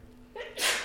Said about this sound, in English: Bless you.